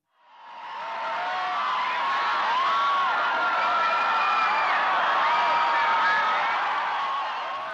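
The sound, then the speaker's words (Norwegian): A large crowd on Copacabana in Rio de Janeiro, Brazil, cheers Pope Francis riding in an open car during a Catholic youth festival, a dense roar of many voices with shrill whoops and high calls rising above it, fading in quickly and staying loud throughout. “I åpen bil gjennom jubelbrusen på Copacabana.”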